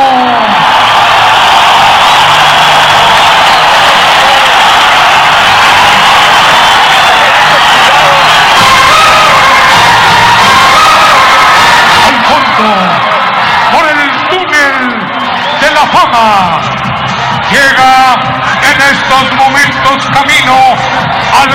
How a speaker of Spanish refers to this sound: Y pues bueno, aquí le dejamos la lucha máscara contra máscara, villano tercero contra Atlantis. Recibamos con un aplauso al favorito a vencer, villano tercero.